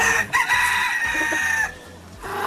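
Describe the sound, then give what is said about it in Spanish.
A flock of chickens on a ranch at dawn clucking and squawking busily as a woman comes out with a bucket of corn, with a rooster's crow rising above the chatter before the birds quiet briefly and resume. “Apenas amanecía y ya estaba ya y la señora salía con la cubeta, con el, con el maíz y empezaba ahí las gallinas.”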